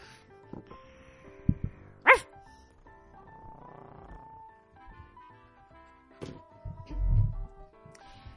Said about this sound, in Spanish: A ver, ¿me puede explicar qué está haciendo este perro aquí dentro?